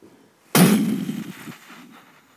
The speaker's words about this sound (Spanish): se oye una explosión lejana. ¿Qué ha sido eso? Debe ser la guerra.